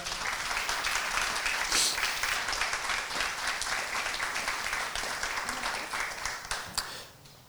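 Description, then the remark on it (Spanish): Loud, sustained applause from a crowd giving a loud round of applause to God at a preacher's call during a sermon, a dense wash of many hands clapping that holds steady for several seconds before tapering off at the end. “Dale un fuerte aplauso a Dios ahí donde estás.”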